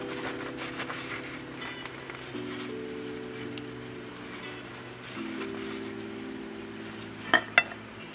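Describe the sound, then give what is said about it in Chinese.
A seafood pancake sizzles steadily in a frying pan over medium-high heat, fried about thirty seconds more to crisp the bottom before flipping, a continuous crackling hiss over a low hum, with two sharp clinks near the end. “我现在看了一下我的下面的那个饼皮，已经算是蛮酥的了，但我想要再稍微让它煎的再酥一点，所以我在最后煎它个三十秒左右，你就可以来翻锅。”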